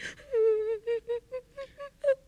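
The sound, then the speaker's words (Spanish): A human voice imitates a small bird crying: one drawn-out high whimper followed by about six short, sobbing peeps in a steady rhythm, moderately loud, with no speech. “echó de su nido a Pico Blanco, que llora y llora con su llanto a cuestas, se alejó del nido”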